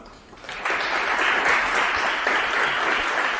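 A crowd breaks into steady applause, building quickly after a brief quiet start and sustaining a dense, even wash of clapping throughout.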